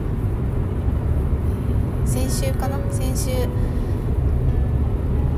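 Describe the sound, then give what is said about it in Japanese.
Steady low rumble of a car interior fills the background, a constant muffled drone beneath a person speaking briefly in a quiet voice while recording from inside the car. “今日は昼から仕事なのでまた車の中からお送りします”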